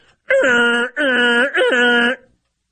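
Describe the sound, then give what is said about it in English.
Someone mimics a goose with three loud, nasal honks in quick succession, each harsh and drawn out with a slight break between, with no other talking. “what geese sound like.”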